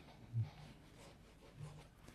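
Hands fumble with small objects close to the microphone, producing a soft rubbing rustle with a couple of dull knocks and clatters. No one speaks.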